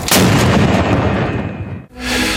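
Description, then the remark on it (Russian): A single loud noon cannon blast from the Peter and Paul Fortress in Leningrad, 23 June 1957, booms out, its broad rumble rolling and echoing before cutting off, followed by a fresh burst of noise like a crowd reacting. “Выстрел полуденной пушки в Петропавловской крепости.”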